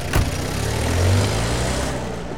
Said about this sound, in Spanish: Y estamos en el carro Hemos recogido a todos los personajes que nos van a acompañar hoy.